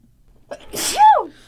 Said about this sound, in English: Bless you. Thank you. was that an adorable sneeze? It was super adorable. I've always wanted a real cute sneeze.